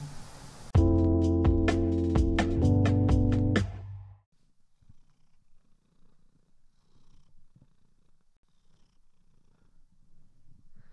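A cat purrs loudly for about three seconds in a steady rhythmic rumble, then it stops and only faint low background noise remains.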